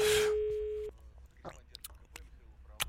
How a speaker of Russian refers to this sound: Но вот видите, в начальной школе, та самая, которая эвакуирована, длинные гудки, и к телефону никто не подходит.